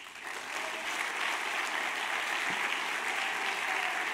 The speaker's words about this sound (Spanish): Denle un aplauso a Jesús.